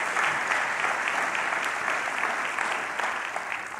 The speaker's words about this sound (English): You have a great team here. Would you give all your staff a big hand? You have an incredible, incredible staff.